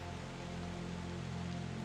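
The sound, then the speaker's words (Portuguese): Steady, even hiss of rain falling continuously, with a low droning hum underneath and no voices. “E a nossa águia está atravessando essa chuva e tem raios e raios caindo.”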